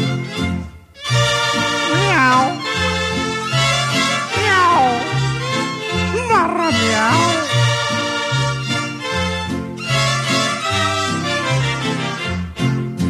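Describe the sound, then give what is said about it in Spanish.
Several drawn-out, sliding cat meows rise and fall over loud, continuous band music, clustered in two bursts, apparently voices imitating the cries rather than a real cat. “Con esta triste y maullida serenata, la noche es una lata, no duerme el más gallón.”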